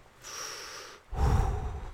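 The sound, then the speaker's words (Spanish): A single deep breath: a hissy, airy inhale lasting under a second, a brief pause, then a louder, fuller exhale rushing out. No talking. “O sea, cuando digo, ah, chinga, ya fue mucho, me pongo a concentrarme en la respiración hasta que me quedo dormido.”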